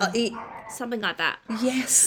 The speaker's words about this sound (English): Sorry, that's a dog barking in the background.